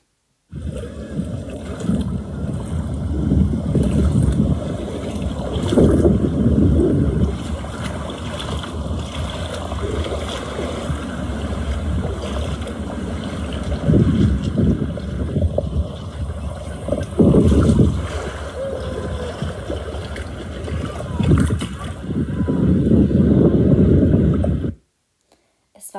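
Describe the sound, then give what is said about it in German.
Steady rushing of sea surf washing onto a flat beach in Denmark on a mild summer day, with gusty wind buffeting the microphone; the roar swells and eases in broad waves, loud, with no talking. “befindest dich an einem milden Sommertag in Dänemark und spazierst ein bisschen durch den flachen Strand und genießt das Rauschen des Meeres.”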